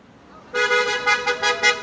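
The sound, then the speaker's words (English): After a brief quiet start, loud car horns from passing cars blare in and keep honking continuously, swelling and pulsing in overlapping bursts, insistent. “Ah, some of us aren't honking.”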